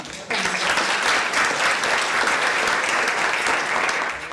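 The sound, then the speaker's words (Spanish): Sustained audience applause for the announcement of a giveaway starts abruptly and continues steadily for several seconds, a dense, even wash of many hands clapping at full loudness with no voices standing out. “Así que eso se merece un aplauso.”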